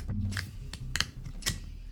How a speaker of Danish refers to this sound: Der er simpelthen et veludført magasin med ind i coveret, som man kan sidde og bladre i, mens at albumet det spinner på bladespilleren.